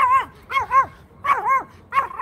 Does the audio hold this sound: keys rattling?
no